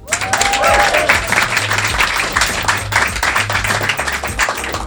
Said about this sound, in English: Like a true radio star, you waited for the applause to die down before you yeah, so yeah.